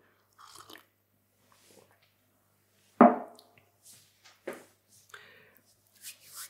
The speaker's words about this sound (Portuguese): Eu vou aproveitar para beber água enquanto vocês abrem.